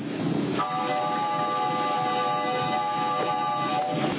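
A steam-powered, piston-driven horseless car that spits fire runs with a steady, loud mechanical rumble and hiss, while a sustained whistling tone rises over it for about three seconds before fading back into the churning noise.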